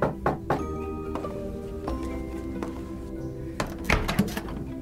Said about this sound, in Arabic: دق الباب